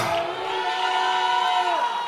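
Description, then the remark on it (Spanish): An audience gives a shout of joy, cheering and shouting aleluya together in a loud, sustained roar of many voices, with one long raised cry carrying through before dropping off near the end. “Alguien grita aleluya.”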